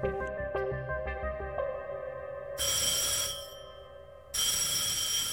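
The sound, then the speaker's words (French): A telephone bell rings loudly in two harsh, rattling bursts separated by a short pause at an embassy, following a few seconds of soft tonal music-like sound. Nobody speaks. “Le 18 août à 16h30 à l'ambassade, le téléphone sonne.”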